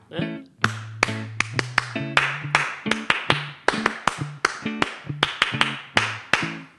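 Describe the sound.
A rapid series of sharp hand claps in a syncopated rhythm for listeners to clap back and copy, some grouped quickly and others spaced apart, with a low voice humming or murmuring underneath.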